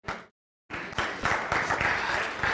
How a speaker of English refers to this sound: Okay, now, why are you clapping for that and you didn't clap for the other stuff?